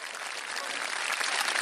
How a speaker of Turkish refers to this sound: Ama balıkçımıza da yetkililere de bir alkış yollamanın ee, vakti geldi.